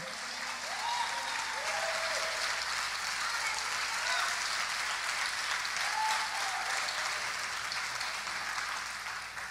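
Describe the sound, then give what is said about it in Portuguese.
Loud, sustained applause from a large audience fills the space, with scattered shouts and cheers rising over the dense clapping throughout. “Pelo amor de Deus, dá aplauso, grita, dança nessa cadeira.”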